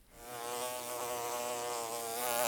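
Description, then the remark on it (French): A forager bee buzzes steadily in flight as it flies off to the next flower, its droning hum wavering slightly in pitch and swelling a little louder toward the end, with no voices. “Une fois couverte du pollen qui s'est logé dans sa fourrure, la butineuse s'envole vers la prochaine fleur, au cœur de laquelle elle se gavera du nectar qui se trouve à la base du pistil, qui est la partie femelle de la fleur.”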